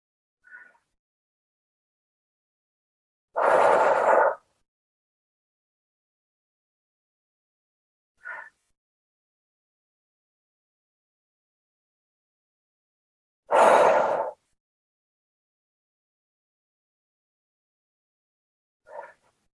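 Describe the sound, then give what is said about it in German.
Slow, deep breaths in and out, taken as deep belly breaths during a seated relaxation exercise: two long, airy rushes about ten seconds apart, with a few short, faint breaths between them and silence otherwise. “Und dann nimm mal drei richtig schöne tiefe Atemzüge.”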